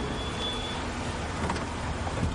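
A car engine rumbles steadily as the car rolls slowly through the gate into the Vámonos Pest warehouse compound and comes to a halt, with a broad low hum and no voices.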